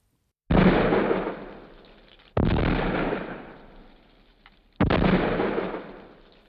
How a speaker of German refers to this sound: Der Kanonendonner, der gegen 21 Uhr erschallt, besteht nur mehr aus feierlichen Salutschüssen.